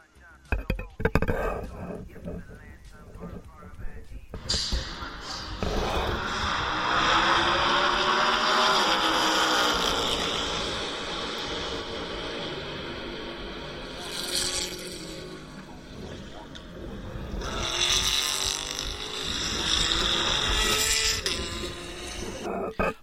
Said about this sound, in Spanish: Este típico coche americano V8 que suena espectacular.